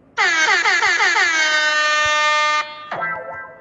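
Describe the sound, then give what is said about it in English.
A loud, blaring air horn, used as an alarm sound effect, sounds alone for over two seconds, its tone pulsing in quick stutters before holding steady, then cuts off and gives one shorter blast. “Let me sound that alarm real quick before I, before I dish what's going on.”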